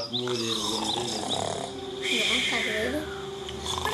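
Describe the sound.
A voice imitates a sleeping wolf snoring: loud, drawn-out rasping snorts and snuffles repeated over a few seconds, like a sleeping animal breathing heavily.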